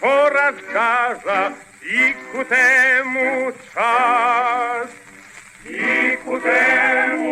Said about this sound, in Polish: Gra tu orkiestra. Nie jestem pewny, czy wojskowa, ale chyba tak, bo inne utwory na tej płycie właśnie w wykonaniu orkiestry Wojska Polskiego. Wokalnie utwór wykonywany jest tu przez chór katedralny i to brzmi tak.